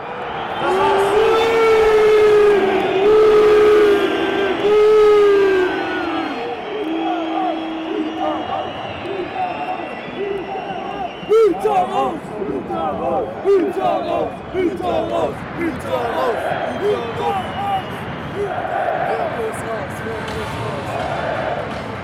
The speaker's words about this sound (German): Und als die Mannschaft sich zeigt, hört man Fangesänge, die es in dieser Form im Borussia-Park unserer Erinnerung nach noch nicht gab.